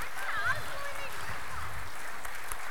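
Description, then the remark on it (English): A group applauds, a dense, steady patter of clapping that stays fairly even throughout, with a brief high cheer or whoop near the start. “Give these guys a round of applause for being so patient.”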